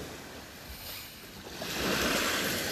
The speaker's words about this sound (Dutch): Hola chica. Je hoort het al. Ik zit aan zee.